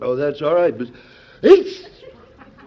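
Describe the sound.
A man speaks a few words, then a single sharp sneeze bursts out, loud and sudden, trailing off into quiet, in the ABC radio drama Mr. President starring Edward Arnold.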